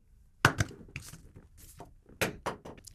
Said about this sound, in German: Dauernd flutschte der Würfel vom Tisch. Sanfter musst du würfeln. Ich hol ihn ja schon. Wo ist er denn hin? Unter das Regal dort ist er gerollt.